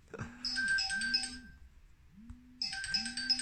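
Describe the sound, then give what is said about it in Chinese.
A phone ringtone plays two bursts of bright, chiming melody, each over a repeating low swooping tone, with a brief pause between them; no one speaks. “哎呀，抱歉，接完电话咱接着说啊。”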